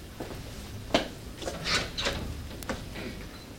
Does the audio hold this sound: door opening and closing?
yes